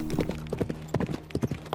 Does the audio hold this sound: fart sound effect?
no